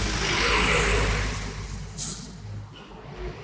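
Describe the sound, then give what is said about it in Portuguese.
A car passes on a busy street, Avenida Perimental Sudoeste in Coab 2, Carapuíba, its loud engine rumble and tire whoosh swelling early and then fading, followed by a brief hiss of more traffic in the background. “Aqui é movimentado, né? É, aqui é. O carro. O carro.”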